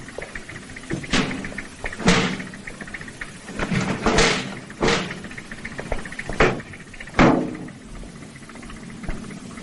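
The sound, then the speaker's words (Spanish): Several heavy door thuds and slams in succession as the doors of a van are shut after bodies are loaded into it, spaced unevenly over a low engine-like rumble. “Tras colocar los cuerpos, cierran las puertas y se marchan.”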